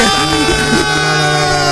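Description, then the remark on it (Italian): A loud siren sound effect blares as a steady, buzzy multi-tone wail that holds its pitch for nearly two seconds, with a brief voice-like murmur mixed in near the start. “sirena, sirena.”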